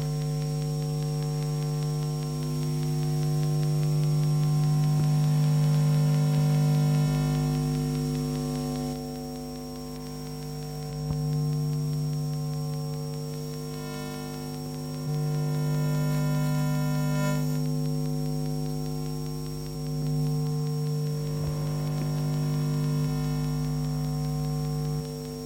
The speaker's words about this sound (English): That was uh, really radio waves that we cannot see with our eyes, we cannot hear, hear with our ears, but we can use an everyday object, the FM radio, to transform them into visible sounds.